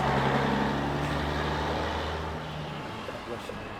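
A heavy truck rumbles past on the street, its low engine drone loud at first and then fading away after a couple of seconds, leaving steady street noise behind.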